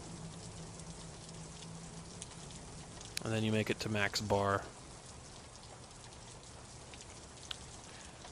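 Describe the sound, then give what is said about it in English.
Steady rain hisses evenly across the whole stretch, a soft constant wash of falling drops, with a man's voice briefly speaking over it partway through. “Um, and uh, you're walking, walking with purpose in the rain.”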